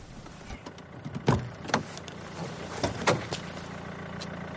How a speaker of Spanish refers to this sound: Ambos vehículos llegan a una amplia curva y se detienen en el arcén. Alex apaga el motor, baja del coche y se dirige al de Judith.